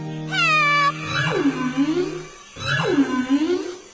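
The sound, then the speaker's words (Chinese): A cat lets out two long, wailing meows in distress, each sliding down then rising again in a high, whiny pitch, with a steady low tone droning beneath the first cry. “哦哦，这声音听起来是动物遇上麻烦了。”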